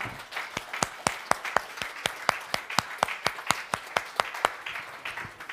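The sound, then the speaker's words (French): A church audience claps together in a steady, rhythmic beat to acclaim Jesus after a prayer, sharp hand claps repeating quickly and evenly over a diffuse wash of crowd noise. “Vous êtes d'accord avec ça Qu'on puisse acclamer Jésus.”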